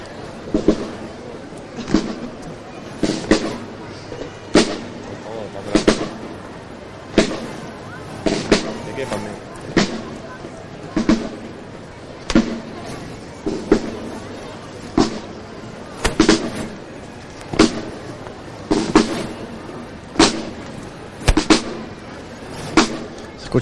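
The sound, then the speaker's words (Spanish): A steady series of sharp, crisp claps as Spanish Legion pioneers (gastadores) strike their rifles in unison in the Plaza de San Francisco, keeping a marching drum-like rhythm about once a second with a legionnaire's drumbeat, with faint voices and crowd noise underneath. “Ese ruido que se escucha es el golpe en el CEMBE”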